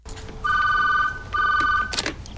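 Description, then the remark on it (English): A telephone rings twice in quick succession, each ring a steady, shrill warbling tone lasting about a second, fairly loud over a faint low background hum. “Duh, he answered right? the phone.”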